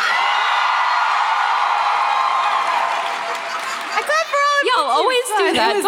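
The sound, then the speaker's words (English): A loud audience cheers in a steady, dense roar, then individual voices break out in rising and falling whoops and shouts over the crowd noise toward the end. “you all always go louder just to just to get me. Just, it's, it's just fine. the natural momentum of cheering.”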